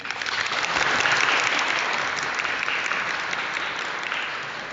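Warm applause from an audience: many hands clapping in a dense, steady roar that swells early and holds for several seconds, with no voices over it.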